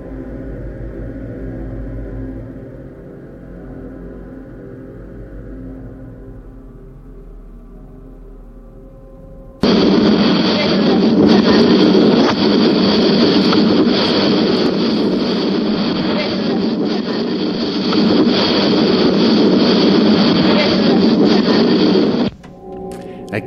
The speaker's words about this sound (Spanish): oye claramente que dice varias veces, varias veces puerta cerrada. ¿Qué hace la puerta cerrada? Es una, una, es una misteriosa psicofonía que fue captada en la torre del enigmático Ochate y que a cada rato repite, la puerta, ¿qué hace cerrada?